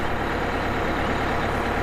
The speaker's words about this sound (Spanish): Tú sabes que este es el autobús del colegio, ¿verdad?